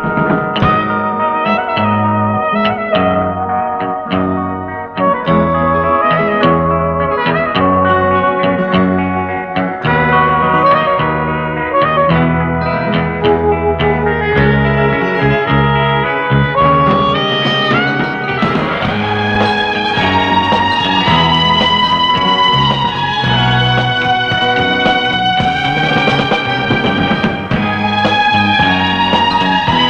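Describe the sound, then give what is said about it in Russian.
The main theme of the film score for The Girl and the Dolphin plays without any talking. It is built around a recurring minor-third melodic figure over steady pulsing chords and stays loud throughout as the melody climbs higher in the second half. “а главная тема девочки и дельфина кстати, со знакомой мелодической фигурой вокруг малой терции, прозвучит прямо сейчас.”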